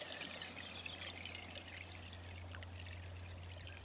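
A steady, soft trickle of water runs through a stream, with high bird chirps scattered above it and a low constant hum underneath.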